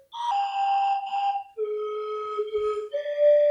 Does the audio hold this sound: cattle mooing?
no